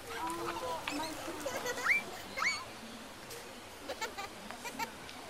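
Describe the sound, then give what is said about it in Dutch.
A busy zoo ambience at Wildlands zoo in Emmen: crowd chatter from visitors under a steady wash of noise, with scattered bleats, bird-like calls and short animal cries popping up every second or so. “Voor deze aflevering bezoeken we Wildlands in Emmen, een dierentuin in lockdown. Waar het normaal ongeveer zo klinkt.”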